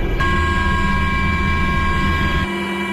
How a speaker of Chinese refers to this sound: 下午一点，直十九、直二零等多型直升机依次起飞升空，奔赴各自目标空域，展开直升机野外场地起降训练。